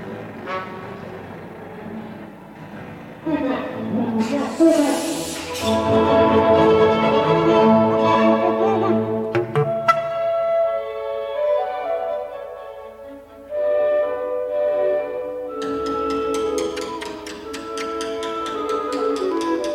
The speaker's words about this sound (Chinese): 然后第二个例子里面呢，拉赫曼更加更加直接的做了这一个解剖，就是他在这一段放了包括他的录音，然后呢，交响乐需要根据这个这个录音的这个节奏继续演哒哒哒哒哒，听一下。